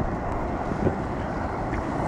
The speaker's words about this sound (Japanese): 波来たんで少々お待ちくださいねはい波でかい